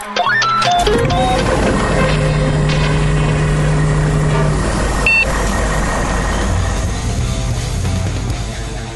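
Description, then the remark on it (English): A heavy truck rumbles loudly as it drives into a truck wash, engine droning steadily under a wash of hissing, whirring machinery noise, with a few sharp electronic beeps near the start. “Oh man, quick, we gotta get into that truck wash.”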